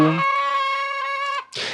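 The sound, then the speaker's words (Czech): Chickens call out in the yard of a house in a small village: one loud, drawn-out crowing note that holds steady for over a second, then breaks off into a brief scratchy burst. No one speaks. “Na dvorku měl pár slepic, pechlívků, jednu kozu, taky jednu kravku.”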